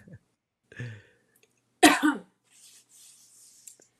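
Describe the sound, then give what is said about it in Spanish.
A person coughs: a short cough, then one loud harsh cough burst, followed by quieter breathy, hissy sounds as they recover. “me tos. No tengo COVID.”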